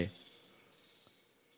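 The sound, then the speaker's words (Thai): A steady, high-pitched drone of crickets and cicadas trilling continuously at night, faint and even throughout, after a brief low thump at the very start. “จิกหลีดจักจันเลไลร้องในยามค่ำคืน แต่เมื่อใจสงบเงียบซะแล้ว เสียงสรรพสัตว์ทั้งหลายก็ยิ่งเสียงดัง”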